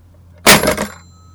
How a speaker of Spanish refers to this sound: Y colgó el teléfono de un porrazo.